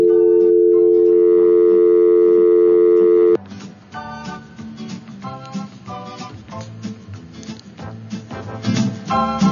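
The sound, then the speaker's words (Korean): A steady, unbroken telephone line tone hums loudly for about three seconds as a listener's call is connected but the caller says nothing, then cuts off abruptly as busy music takes over. “네, 전화벨이 울렸는데 전화를 아무 말씀을 안 하시네요.”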